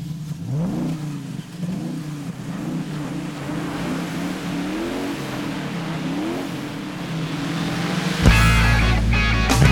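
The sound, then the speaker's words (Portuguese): A car engine revs and accelerates in repeated rising surges, loud, as the car flees a shopping mall parking lot in Recife without paying and overturns; an abrupt, louder burst of harsh noise takes over in the final seconds. No one speaks. “Carro capota ao fugir de shopping do Recife sem pagar estacionamento.”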